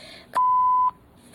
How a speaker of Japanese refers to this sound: ピンポンパンポン。